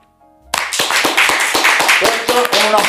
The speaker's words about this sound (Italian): applauso per la cultura smisurata